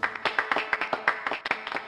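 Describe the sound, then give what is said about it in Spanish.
A short burst of applause, many hands clapping in quick, irregular bursts at a moderate, steady level, with no one speaking over it. “Así que aplausos.”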